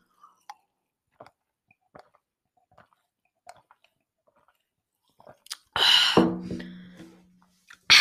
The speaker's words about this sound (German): Okay, das hat niemand gehört, weil, ja, wie gesagt, ich schlürfe nur was, wenn ich auf irgendwas reagiere.